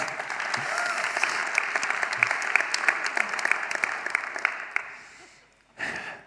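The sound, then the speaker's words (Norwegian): An audience claps steadily for several seconds, a dense patter of many hands that fades out, then a short final burst of clapping resumes at the end. “Enten må dere klappe ordentlig, eller så må dere la være. Skal dere klappe for det?”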